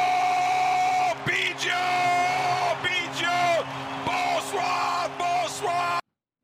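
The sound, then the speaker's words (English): A hyped-up French man yells the name "Biggio" (Cavan Biggio) over a defensive highlight play, in an excited, drawn-out bellow, voice rising and stretching over about six seconds with a few short breaks, loud, over a steady low background hum. “Are we going to be hearing that French guy yell Biggio again?”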